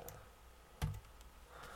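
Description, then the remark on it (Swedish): A few quiet keyboard clicks as someone types out code tests, with one sharper key tap standing out near the middle and fainter taps scattered around it, over a low, steady background hum. No one speaks. “Jag bara daskar ut tester här.”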